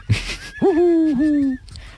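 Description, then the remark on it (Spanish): A voice imitates a hoopoe call with a single long, low hooting note that rises, then holds steady with a slight dip, fairly loud after a short rustle. “Ah, y, eso, y, eso, hace un ruido y eso hace.”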